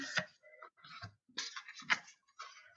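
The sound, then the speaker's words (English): A deck of oracle cards being shuffled to draw a card, with soft papery flicks and riffles coming in irregular bursts separated by brief pauses. No one speaks. “So I'm just having a shuffle and I'm just asking that the right come right card comes forward for everybody that's listening.”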